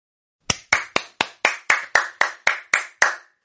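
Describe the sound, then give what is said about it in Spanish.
Applause from a single pair of hands: about eleven sharp, loud claps in a steady, even rhythm over roughly three seconds, with no voices. “Esos aplausos, esos aplausos.”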